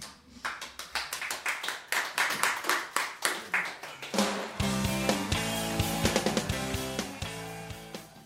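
A crowd claps in a steady, even rhythm for about four seconds, then band music comes in loudly and the clapping carries on beneath it.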